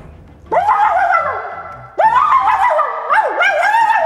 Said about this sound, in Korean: 개 짖는 소리를 들어보라고. 원래는 이 동네 개들은 이렇게 짖거든. 어, 근데 말이야. 네. 지금은 이렇게 짖고 있어.